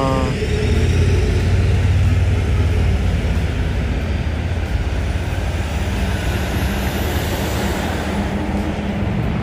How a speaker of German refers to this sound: Ui gerade ganz viele Autos, oh, Motorräder.